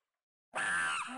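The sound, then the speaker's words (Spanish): After a brief silence, a loud howl erupts abruptly from scores of monkeys in the trees by a spring, a shrill, sustained screeching cry that holds steady before wavering slightly as it continues. “Kawasá, primo de Nakú, escuchó el aullido de animales.”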